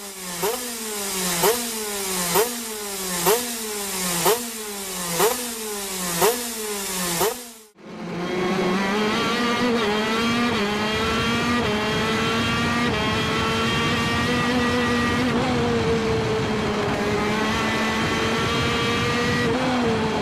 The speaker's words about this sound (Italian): Ecco, secondo me, il migliore dei monocilindrici due tempi, il TM125 per il karting.